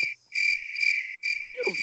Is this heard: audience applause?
no